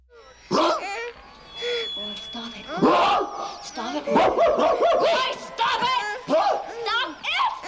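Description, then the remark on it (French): Actor William Finlay, playing a neurotic family father in a scene of the film Le Crocodile de la Mort, imitates a rabid dog, letting out a rapid run of harsh, snarling barks and growls, loud, with barely a pause for several seconds. “D'ailleurs, dans une scène, William Finlay, dans son rôle de père de famille névrosé, se met à aboyer comme un chien enragé.”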